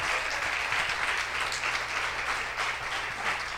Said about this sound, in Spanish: Y vamos a darle un aplauso a las maestras que están allí dándole la clase a los niños.